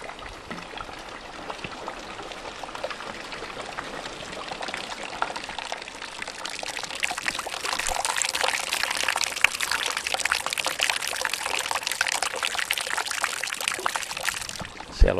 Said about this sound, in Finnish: Mä vedän sitä rännistä ja rännistä alas se vesi valuu ja lorisee ja lopuksi se tulee ämpäriin. Ja kuunnellaan se soundi, että miten se muuttuu.